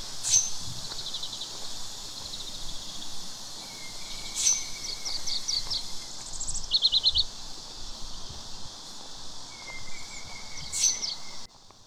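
Outdoor birdsong on a very hot day: scattered bright, high chirps and short twittering phrases come every few seconds over a steady, hissing cicada drone, with no one speaking.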